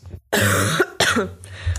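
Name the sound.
cough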